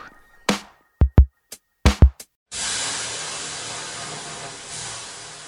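Several sharp knocks and thumps in quick succession, then water hits a hot sauna stove and a loud, broad steam hiss surges up and holds steady for about three seconds.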